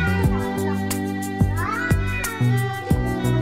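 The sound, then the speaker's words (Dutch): A cat meows repeatedly in a cat video over a full orchestral music backing, with the mewing pitch glides rising above steady sustained chords and rhythmic accents; no one talks. “dit kattenfilmpje, volgens mij, met een heel orkest”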